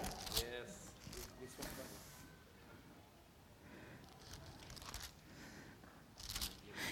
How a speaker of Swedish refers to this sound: ja, nu ska jag se, jag måste, um, tillbaks till brevbrevet. Visst är det bra? Få bläddra lite.